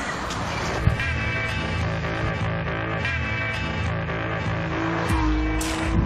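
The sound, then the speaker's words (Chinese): A turbocharged six-cylinder car engine pulls hard under acceleration: a loud, dense, steady harmonic roar with a brief thump near the start and a rising whine toward the end. No one speaks. “其实也不难理解，大排量自然吸气就是这样，那涡轮增压的感觉就是这样。”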